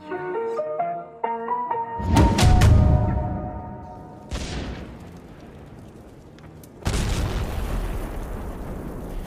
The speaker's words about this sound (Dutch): Hier hoor je de Oekraïense K2-brigade aan het werk in een Russische loopgraaf op een positie niet ver van Bakhmut vandaan, bij Solidar. En je ziet ze heel methodisch te werk gaan. Eerst mortieren en dan granaten afgeworpen door drones.